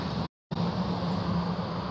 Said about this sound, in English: Hey, there's a car going past.